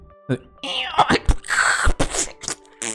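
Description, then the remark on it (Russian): A voice mimics a dial-up modem connecting, with a string of rising whistles, buzzy tones and hissing static bursts over about three seconds, fairly loud. “Это был модем.”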